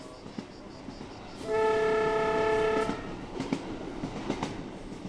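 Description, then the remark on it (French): A tram rolls past along a road, sounding a steady horn-like tone for over a second, followed by scattered rattling and clacking from the wheels on the rails. “Et je regardais, je me suis arrêté au bord de la, de la, route, je regardais le tramway, le tram.”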